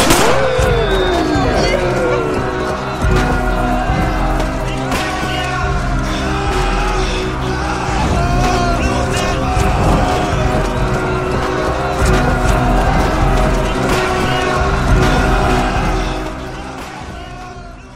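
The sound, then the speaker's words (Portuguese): A US Army car's engine roars and tires squeal in a skid as the vehicle pulls in, loud and continuous for several seconds, with a voice talking over the noise. “Depois de muito, muito tempo, ou talvez foram minutos, sei lá, um carro do exército americano chega ao local e agradece o trabalho de vocês.”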